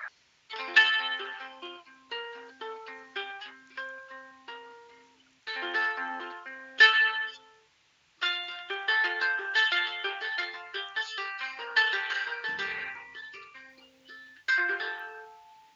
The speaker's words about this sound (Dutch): Ik, ik kan wel een mooi tokkelend gitaartje laten horen dit getokkel wat je hoort is een, ja, stukje, heeft ook met zonnestelsels te maken.